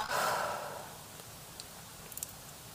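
A single deep, breathy exhale, fairly loud, taken as part of a deep-breathing relaxation exercise with feet on the floor, fades out over about a second into quiet, with a few faint clicks afterward.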